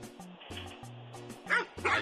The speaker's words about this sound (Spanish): Andaba buscando los perros. Échenme los perros, aunque sean ah, grabados, para que vean que me echan los perros a mí.